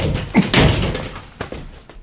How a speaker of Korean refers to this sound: 장씨가 서둘러 문을 닫았다. 유순은 닫힌 현관문을 한참 쳐다봤다.